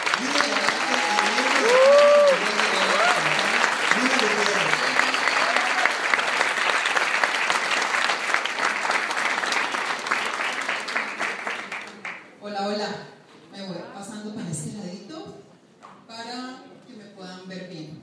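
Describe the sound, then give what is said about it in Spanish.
A conference audience claps loudly and steadily for about twelve seconds, a dense wash of applause welcoming a speaker, then it stops abruptly and a woman begins speaking. “Entonces, sin más preámbulo, vamos a darle fuertísimo aplauso.”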